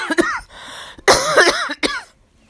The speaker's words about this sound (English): and the past couple of days, and actually the past two weeks, I've still been coughing.